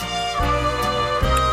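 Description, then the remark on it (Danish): A short, loud musical jingle with sustained tones and a couple of distinct chord changes, played on its own with no talking, used as a transition when moving to a new category. “så er der jo også lige den her øh, gode gamle mellemlægningsmusik, som jo er til, øh, hvis, øh, hvis når vi skal ud i en ny kategori, og den lyder sådan her.”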